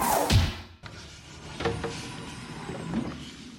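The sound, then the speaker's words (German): Plastic water bottles crunch and crackle inside their shrink-wrap pack, a loud crinkling burst at first, then irregular creaks and rustles continuing at a moderate level with no talking. “Die Plastikflaschen mit dem Wasser knirschen. Weil die Plastikflaschen in eine Plastikpackung verpackt sind.”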